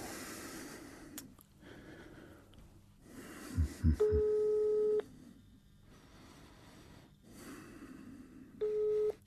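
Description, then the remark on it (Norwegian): An electronic telephone ring from an unknown number sounds twice in room 317 of Hotel Brystol in Oslo: a steady, mid-pitched buzzing tone lasting about a second, then a shorter repeat several seconds later, with soft rustling and a brief snort before it. No one speaks. “Ukjent nummer.”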